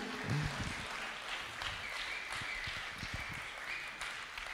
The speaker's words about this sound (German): Ihr dürft ihr schon mal einen mächtigen Applaus geben.